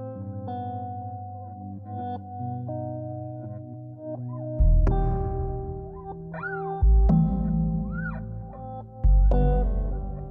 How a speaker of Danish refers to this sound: Øh, og jeg synes lige, vi skal høre lidt af, af sangen, den, øh, den kommer her.